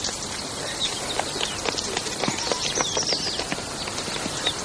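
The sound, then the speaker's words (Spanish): Horse hooves of a carriage standing and waiting beside a school clop and shuffle irregularly, a scatter of sharp, moderately loud knocks over a constant hissing background with no talking. “Junto a la misma espera un carruaje.”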